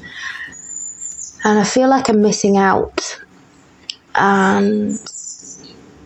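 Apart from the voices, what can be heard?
birds singing outside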